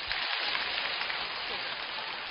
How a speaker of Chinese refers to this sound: 观众老师给点掌声鼓励。